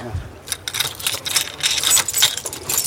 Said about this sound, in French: Je retourne la clé. Il y a combien de clés là sur votre trousseau Il n'y en a qu'une qui est importante, c'est celle-ci. On referme la porte.